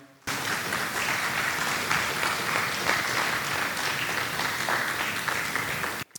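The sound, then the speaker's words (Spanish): An audience at a church service applauds the Lord steadily for about six seconds, a dense, even wash of many hands clapping at a loud, sustained level before it cuts off abruptly. No one speaks over it. “Puede dar un fuerte aplauso al Señor, hermanos.”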